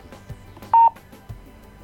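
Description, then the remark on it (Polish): A scale's overload warning sounds as one short, loud, steady electronic beep at a mid-high pitch, lasting a fraction of a second over faint background noise, with no talking, signalling that more candies are on the scale than the target weight. “I ten sygnał oznacza, że jest y, więcej niż powinno być wadze docelowej.”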